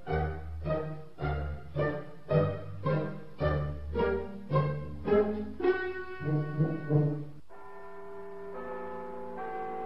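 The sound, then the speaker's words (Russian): A church clock bell at Val-de-Grâce strikes the quarter hour, with a quick, steady run of resonant chimes that overlap and then fade into a long, lingering hum. No voices are heard. “Слышишь, на Вальдеграс пробила вещь четверти десять,”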